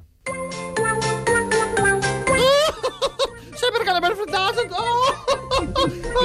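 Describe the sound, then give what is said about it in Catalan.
A bright, tinkly musical jingle plays briefly, then the high, warbling voice of Pingu, the cartoon penguin, babbles gibberish with giggly, chattering inflections, loud throughout. “Anem a escoltar el Pingu.”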